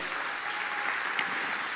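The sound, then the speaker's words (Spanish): An audience claps for God, the owner of everything, steadily, a dense, even wash of many hands applauding together at moderate loudness, with no voices standing out over it. “¿Habrá alguien aquí que pueda aplaudir al dueño de todo?”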